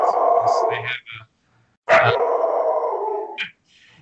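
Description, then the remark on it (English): A dog barks in two loud, drawn-out bursts separated by a short pause, with a brief high yelp near the end. “There's the dog.”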